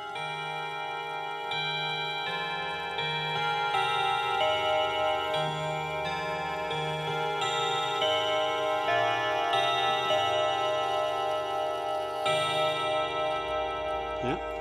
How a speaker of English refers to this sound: Did you recognise the chant? I think everyone will know that one. Yes. Frere Jacques. I, uh, I, when I bought the clock, I had no idea that it played the Frere Jacques.